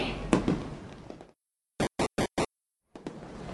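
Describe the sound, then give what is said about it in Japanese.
Fireworks crackle and rumble, then go quiet before four sharp, evenly spaced bursts pop in quick succession. After another brief pause the crackling starts again, fairly loud. “お父さんは少しだけ花火を見たら行くよ”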